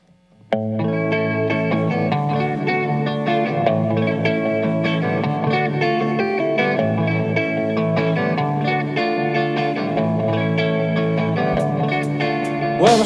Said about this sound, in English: Uh, we're gonna go ahead and listen to the second half of their set as they take us into the last three songs for Border Sessions here live at Star City Studios. Go ahead and take it, guys.